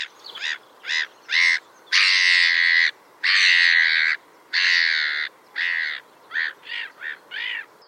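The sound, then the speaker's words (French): Harsh, squawking calls from a gull colony ring out clearly with no talking: a quick run of short cries, then three long drawn-out wails, then more short, rhythmic calls. “Bon, les colonies de mouettes Pensez pour Gaston Lagaffe.”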